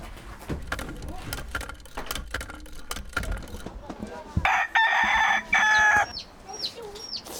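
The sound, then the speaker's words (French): A rooster lets out one loud, raspy, drawn-out crow about halfway through, after a stretch of scattered clicks and knocks; a few short, high bird chirps follow at the end. “L'hirondelle et le coq.”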